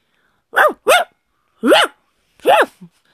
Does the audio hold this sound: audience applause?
no